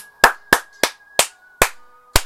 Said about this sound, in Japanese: まあ、拍手とは言えないですけど、まあまあまあ、あのー、勝ったことはまあ事実なので、まあ、うん、本当あ危なげない試合したなって感じですね。